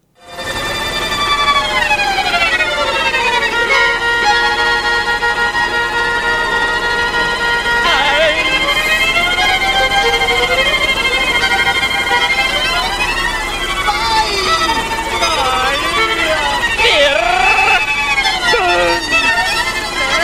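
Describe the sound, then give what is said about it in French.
A musician wearing a headset plays a melodic instrument inside a running helicopter: sliding, wailing tones play loudly and continuously over the helicopter's steady low engine rumble, the pitch swooping up and down in long glides. “Et puis avec son casque pour essayer de se couper du bruit de l'hélicoptère, malgré le fait qu'il soit dans l'hélicoptère en marche, eh bien il fait euh, son instrument.”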